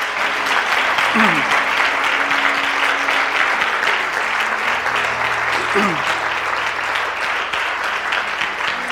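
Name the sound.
loud audience applause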